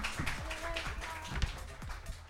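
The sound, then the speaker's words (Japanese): An audience applauds, a steady, dense patter of many hands clapping at once at moderate loudness, filling the whole short stretch without a break. The audience is at a talk session at New Balance Harajuku, welcoming special guest model Gabby onto the stage. “このトークセッションのトップバッタースペシャルゲストはモデルのギャビーさんですどうぞステージまでお上がりください皆さん拍手でお迎えください”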